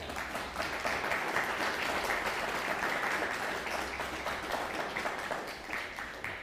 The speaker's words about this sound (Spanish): Pues dale un fuerte aplauso al Todopoderoso.